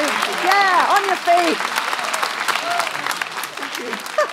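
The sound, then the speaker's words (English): Loud, sustained applause from a large audience fills the space, a dense wash of clapping with cheering voices rising over it near the start, like a crowd on its feet giving a standing ovation to chef Asma Khan. “Will you please thank Asma Khan?”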